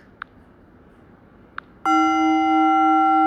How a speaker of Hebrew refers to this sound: שומעים את הגונג? לא? אוקיי.